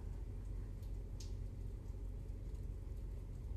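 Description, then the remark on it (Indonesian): Steady trickling water outside, like light rain, forms a constant low wash with a soft rumble beneath, with no voices. “Di luar terdengar suara air kemericik.”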